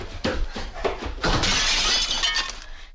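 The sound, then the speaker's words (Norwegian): An antique mirror in a hallway shatters with a few sharp cracking impacts followed by a bright, sustained spray of tinkling glass fragments that scatter and fade out over a couple of seconds. “Tenk deg at barna løper om kapp litt vel nærme det antikke speilet i gangen.”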